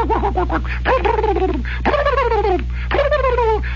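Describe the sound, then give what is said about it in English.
A person mimics turkeys walking along and gobbling, giving several quick warbling bursts in a row, fairly loud, over a steady low hum. “And all these turkeys are walking along, you know, the funny look on their face, and their bills are going, and their eyeballs are spinning.”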